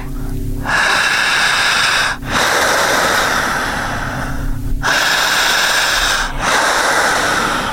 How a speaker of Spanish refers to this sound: Jalando el aire fuerte. Eso, ojos abiertos. Otra vez.